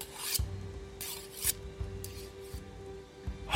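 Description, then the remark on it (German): A dagger blade scraped across a whetstone in slow, repeated rasping strokes, several passes with short pauses between them, fairly quiet, with no talking. “Ich schärfe meinen Dolch.”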